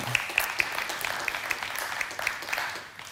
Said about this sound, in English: So thank you, church. Well done. Give yourselves a clap.